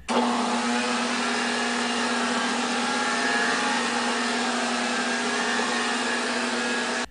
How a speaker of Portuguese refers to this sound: Muitos não tinham ceradeira, mas ela foi bem popular nos anos 70 e 80 em muitas casas. Parecia um disco voador e fazia um barulho inconfundível.